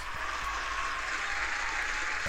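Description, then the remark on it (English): A steady round of applause from many hands, a dense, continuous crackle of clapping that holds at an even, moderate level for a couple of seconds with no voices. “Can we just give this woman a round of applause?”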